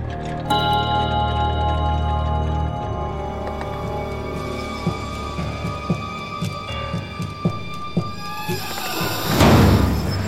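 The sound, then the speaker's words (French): A window slams shut in a gust of wind with a loud, sharp clatter near the end, after a stretch of steady ticking over a low sustained hum. No one speaks. “Hélas, ce n'est qu'un coup de vent qui a fait claquer une fenêtre.”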